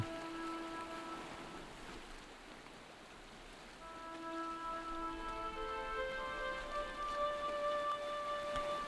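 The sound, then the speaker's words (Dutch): Ocean waves roll rhythmically onto a beach and draw back into the sea, a steady, hissing wash of surf that swells a little louder partway through, with soft sustained musical tones drifting over it and no voices. “luister naar de golven. Luister hoe de golven ritmisch het strand oprollen”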